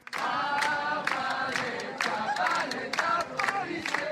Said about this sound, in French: Drapeau décroché, brûlé, en marge du festival de théâtre de rue, la foule s'est réunie devant le palais de justice au son de chants féministes et anti-police.